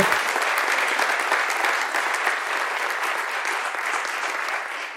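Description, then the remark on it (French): An audience claps steadily for about five seconds for Charles-Henri Groux, journalist at Le Monde, and Frédéric Amadou, CTO of IRCAM Amplify. It is a dense, even patter of many hands that holds a constant loudness and fades only slightly at the end, with no voices over it. “Je vous demande d'applaudir Charles-Henri Groux, journaliste au Monde, et Frédéric Amadou, CTO d'IRCAM Amplify.”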